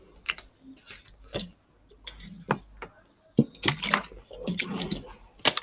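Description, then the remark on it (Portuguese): Someone takes a few sips of water, with small wet slurps, gulps and lip clicks coming in an uneven series, ending in a louder burst of swallowing. “Já sabem, mais um golinho d'água.”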